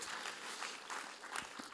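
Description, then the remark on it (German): A brief burst of applause, a steady crackle of many hands clapping with a few sharper claps standing out, fairly soft overall and with no voices. “Ich darf gerne Applaus geben.”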